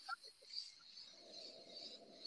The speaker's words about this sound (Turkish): E, sesiniz çünkü arkadan cırcır böceklerinin sesi geliyor.